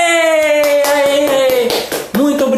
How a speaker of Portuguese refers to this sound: Muito obrigado pelos aplausos.